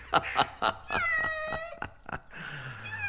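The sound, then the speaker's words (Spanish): An impatient cat meows insistently several times in a row, fairly loud, with drawn-out tonal cries and short chirps between them, no voices present. “¿Qué gato más impaciente?”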